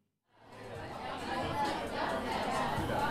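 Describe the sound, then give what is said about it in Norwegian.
A theatre audience at Det Andre Teatret chatters all at once in a steady, lively murmur just before the doors open, with occasional chuckles and laughter rising out of the dense babble after a brief silent start. “Som dere hører, så er stemningen høy. Det er like før dørene åpner. Publikum koser seg med en øl eller et glass vin fra den velstyrte barn.”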